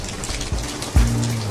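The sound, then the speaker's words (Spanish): Shower water runs in a steady, hissing spray across the whole clip, with two low thuds partway through and a faint low hum continuing after the second. No one speaks. “Este es mi lugar favorito. Aquí en la ducha”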